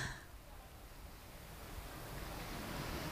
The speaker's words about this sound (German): Wir können auch ganz kurz mal, man kann das Meer auch im Hintergrund hören.